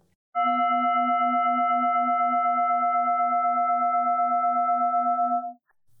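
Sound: singing bowl being struck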